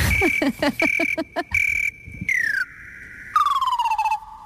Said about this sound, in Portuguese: Ó oh, Pedro, prepara o grilo.